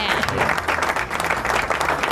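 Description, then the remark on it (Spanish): A burst of steady applause for the chocolate alfajor, declared the winner, many hands clapping in a dense, continuous wash for a couple of seconds, fairly loud, with some voices mixed faintly underneath. “Aplausos el alfajor de chocolate, alfajor de chocolate son todos.”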